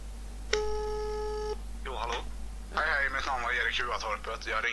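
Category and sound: signal or alarm, telephone call ringing tone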